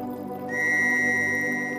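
A shrill, steady whistle blast over deserted streets on a cold, drizzly evening under street lamps, starting abruptly after a brief low hum and holding loud and unbroken to the end, a piercing high tone over a rumbling background.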